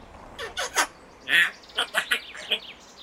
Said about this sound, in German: Da läuft eine alte Frau mit ihrem Hund an mir vorbei. Doch Moment. Ich schaue ein zweites Mal hin und kann es nicht glauben. An der Leine ist kein Hund. Das ist ein Papagei.